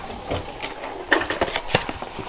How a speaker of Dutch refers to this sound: Hop. En dat doe ik altijd zo. Ik pas mijn glas onder mijn kraan en gaan.